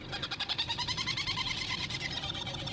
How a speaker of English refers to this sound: And these are flying all around us are these amazing gadfly petrels called uh, herald petrel or Trindade petrels. These are seabirds that breed on tiny little islands around the world.